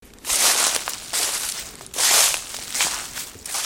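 Footsteps crunch through dry leaf litter in the Oberolmer Wald, an oak mixed forest with hornbeams in Rheinhessen near Mainz, a steady walking rhythm of crisp, rustling crackles, with no voices.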